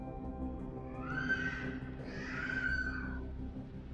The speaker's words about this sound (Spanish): Eh, les digo que, puta madre, porque, oye, un pinche niño llorando aquí afuera. ¿Qué pedo? ¿Qué pedo? ¿Quieren callar ese pinche squinkle? Gracias. Ay, hija de la chingada, no lo está callando